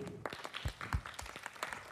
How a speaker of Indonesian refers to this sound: Ya, Terima kasih, beri tepuk tangannya dulu.